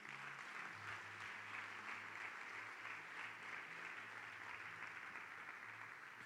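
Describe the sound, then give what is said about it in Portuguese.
A church audience applauds the Lord loudly and steadily, a dense wash of many hands clapping for about six seconds, with a faint low hum underneath and no voices standing out. “Pode aplaudir o Senhor bem forte?”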